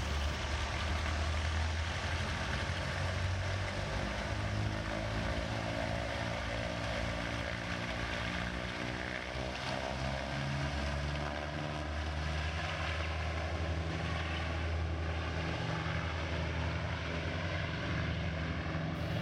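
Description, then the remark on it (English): Loud, continuous roar of a DC-7 propeller airliner's engines at takeoff power as it sets off at 10:23 on an eight-hour flight to Bamako, in moderate wind and light drizzle. The deep throbbing drone shifts in pitch, fills the whole recording and has no voices. “Chief pilot Maurice Verge and co pilot Jean Bouchot are given the all clear by air traffic control and at 23 minutes past 10, the DC 7 sets off on its 8 hour flight to Bamako.”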